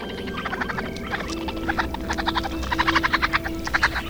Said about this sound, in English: A sudden sound from the raccoons outside in the churchyard awoke Abby from her vivid dream of Wendy.